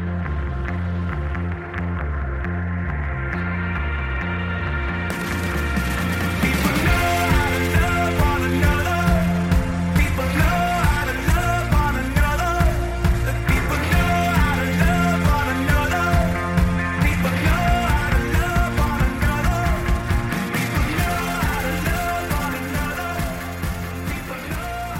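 An indie rock track, the first track from a new album by an English indie rock band, plays with no voices over it. It opens with a sparse, lower-register intro before drums and bright guitars kick in around five seconds, then drives on at a steady, loud beat.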